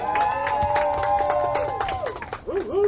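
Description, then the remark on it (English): A crowd applauds and cheers for their member of parliament for Mount Moriah, with dense clapping running throughout and a sustained horn-like tone sounding over it, sliding downward near the end. “Let's give our MP a big round of applause.”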